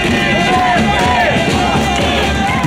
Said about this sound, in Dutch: Meer dan 100.000 mensen door heel Frankrijk gingen dit weekend boos de straat op. Nou, heel veel deelnemers aan de demonstraties hebben het over hun vrijheid.